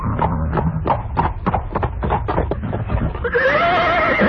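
A quick, steady run of horse hoofbeats clatters for about three seconds, then a loud, high-pitched whinny rises and falls over the continuing gallop.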